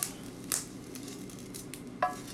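Fried rice stir-frying in a pan: a steady sizzle with scraping and clattering from the spatula, including sharp metallic clinks at the start, around half a second, and near two seconds. No one speaks.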